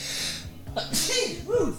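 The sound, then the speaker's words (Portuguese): A single sharp sneeze bursts out after a brief inhaling wind-up, followed by a short breathy exhale and a faint vocal sound. “Ai, vou espirrar, peraí”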